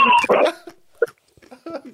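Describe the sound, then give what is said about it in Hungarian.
Stray dogs at a pool bark in short, irregular bursts: a loud, harsh volley at the start, then scattered quieter yelps and barks, with brief gaps of silence between. “Egy medence teli kóbor kutyákkal.”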